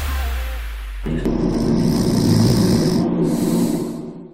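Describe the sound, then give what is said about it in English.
A single long, rumbling snore from a person dozing off during a news segment, drawn in and held, loud, with a buzzy throaty rasp that swells and then fades out, no talking. “In case you missed it, that is a clip of me snoozing on the news last week.”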